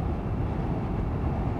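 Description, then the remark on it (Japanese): A train rumbles past, heard while sitting beside a river in the middle of a city, as a steady, low, even roar that holds the same level throughout, with no voices and no distinct clacks or horn standing out. “今こうやって電車の音が聞こえたりとか虫の鳴く声が聞こえたりとかちょっと涼しい風が吹いてたりとかよーく聞くと川のせせらぎが聞こえたりとか”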